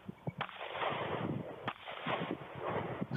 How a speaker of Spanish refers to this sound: A mí no me importa la cadencia de los disparos de ella, ni de una, persona que está empezando a disparar. Esto es súper normal.